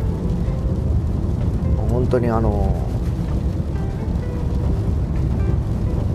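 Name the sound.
car driving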